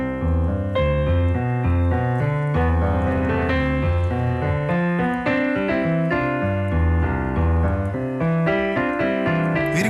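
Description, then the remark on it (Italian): A piano plays a lively theme from a Stravinsky sonata in thick chords, with tonic and dominant harmonies superimposed so they clash, loud and steady throughout with no voices. “questa eh, sovrapposizione di tonica e dominante, cioè due, accordi, due accordi opposti della musica tonale.”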